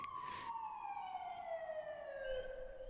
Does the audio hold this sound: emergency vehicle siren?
yes